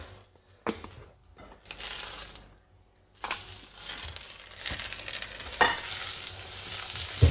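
A little more oil is added to a hot pan and breaks into a steady, crackling sizzle that grows louder after a quieter start, with a few sharp pops and a utensil clink, no voices.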